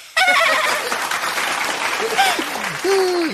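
A burst of applause from a small group, dense steady clapping that starts abruptly and continues throughout, with voices whooping and calling out over it.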